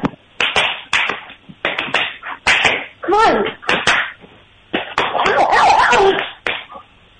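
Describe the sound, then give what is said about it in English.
Repeated sharp hand slaps by a person against their own body, coming in quick uneven bursts, to get a dog named Ouija to bark, mixed with a person speaking briefly and some high whining sounds. “I just have to hit myself usually.”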